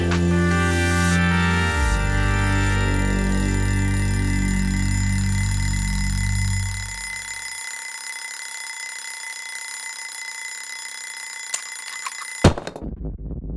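An alarm clock rings with a steady, bright metallic tone that holds for about twelve seconds before cutting off abruptly; the sound is loud, with no voices.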